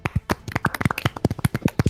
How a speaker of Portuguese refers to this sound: Não, é boa, palmas pro Popó, pessoal. Palmas. palmas pro Popó aí.